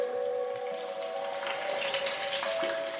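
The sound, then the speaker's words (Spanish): Constant heavy dripping water in a glacier ice cave, so dense it merges into a steady rushing wash like a small waterfall, with a faint sustained tonal hum underneath and no voices. “las goteras eran tan constantes que no te dejaban escuchar tu propia voz. Eran como cascadas.”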